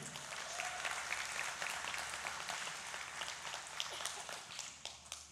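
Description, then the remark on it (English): A crowd applauds steadily to congratulate a couple on 23 years of marriage, a dense wash of many hands clapping at once that holds at an even level for several seconds without fading. “I'm going to give them a little hand.”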